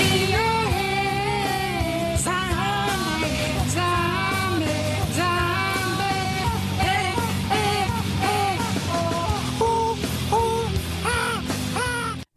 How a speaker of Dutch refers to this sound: Eh, in deze commercial, wat we zien, rijdt een jonge man in een Renault Clio. Bij het stoplicht zingt hij dus hard mee, niet om aan te horen.